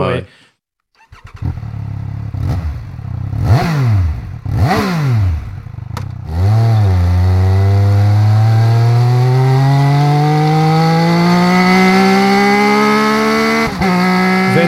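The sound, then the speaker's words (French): A Triumph RR three-cylinder 1100 cc, 180-horsepower motorcycle engine blips sharply a few times, then pulls into one long, loud acceleration, its pitch climbing steadily from a low growl to a high, sustained wail. “si vous allez sur le site de Triomphe, il y une, on peut entendre le son de la RR.”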